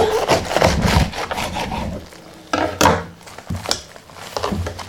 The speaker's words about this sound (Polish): Teraz będę kroiła kapustę pekińską. Ja zawsze kapustę pekińską najpierw kroję na pół. Łatwiej jest osobie, myślę, że nie tylko niewidomej, pokroić taką kapustę, bo wtedy wszystko nam się nie rozsypuje. Teraz przekroję na pół.